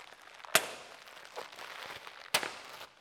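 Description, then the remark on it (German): Two sharp, loud balloon pops about two seconds apart, each a sudden bang with a brief hissy tail of air, over a faint background hiss. No one speaks. “Also da kommt die Luft schnell raus, ihr merkt es.”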